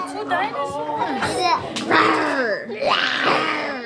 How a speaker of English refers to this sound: It's an hour before lunch at the Unity Council's Early Head Start program. Toddlers are sitting around a table molding their Play Doh into dinosaurs. I join in on the fun.